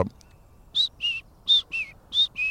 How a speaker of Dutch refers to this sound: Ondertussen horen we zanglijster zingen. Kijk, als je, ik mag maar als het een paar vogels per aflevering noemen. Maar om even een idee te geven hoeveel vogels er om ons heen aan het zingen zijn. Het is echt niet normaal.